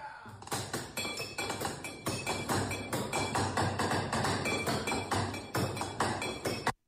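Fast, rhythmic drumming by two people seated at a table, improvising on the glasses, plates and cutlery around them, with bright clinks and dull thunks in a steady, lively pattern. The percussion plays on its own with no voices.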